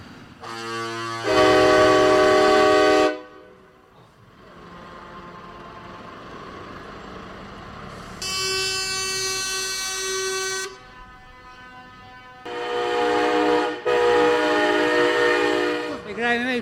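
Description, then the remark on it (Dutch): Loud, long blasts from several heavy truck horns of the Trucker Convoy NL in the Netherlands, sounding in three sustained bursts with brief gaps, over a constant rumble of engines and traffic. “Dat is de Trucker Convoy NL.”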